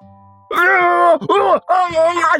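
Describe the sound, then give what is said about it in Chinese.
A robber being struck repeatedly cries out in pain with three long, loud, strained yells separated by brief gasps, his voice harsh and wavering at a fairly high pitch. “那名抢劫犯被抽的是大声惨叫起来，手里的匕首也不知道掉到哪儿去了，双手捂着自己的头，声嘶力竭的大声惨叫。”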